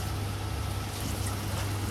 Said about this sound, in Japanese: まあ、こんだけ雨の音がしてるのも換気のために窓開けてるからなんですけど窓閉めちゃえばねうちはそんなに響かないけどこのタイプの振り方は閉めてても聞こえてくるタイプだな